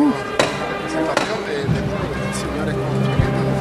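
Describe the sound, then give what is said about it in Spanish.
Two sharp, ringing raps of the capataz's knocker (martillo) on a procession float (paso) sound in quick succession, loud and crisp, over a steady murmur of crowd voices that continues afterward. “Sonar el martillo.”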